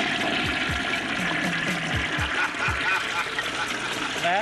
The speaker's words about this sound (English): Hey, what's that noise? It's the. Uh, I flushed the toilet. And it makes a funny noise. Well, so it does.